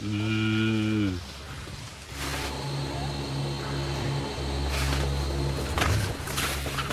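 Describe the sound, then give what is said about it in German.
A low, steady hum from the electric drive of a modern, fully electronic gondola lift, with a tonal drone that runs continuously, opening with a brief, louder falling tone that could pass for a cow's low. No talking. “Und das einzige Antriebsgeräusch, was du hörst, ist dieses.”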